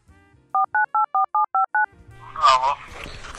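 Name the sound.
telephone dialing tones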